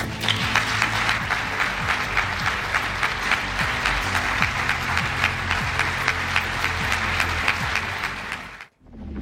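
Sustained applause from a large audience after a speech, dense and steady clapping for several seconds before cutting off abruptly near the end.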